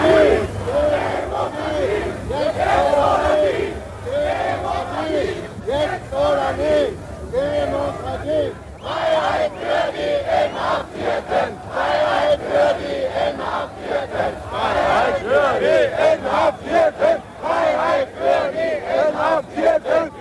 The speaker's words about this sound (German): Er ist der Hoffnungsträger der Demonstrierenden. Gorbi, hilf uns, rufen sie und noch viel mehr. Hier ein Zusammenschnitt der wichtigsten Demonstrationsrufe.